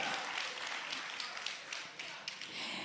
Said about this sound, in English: You can clap for him, you can clap for him if you want to clap for him.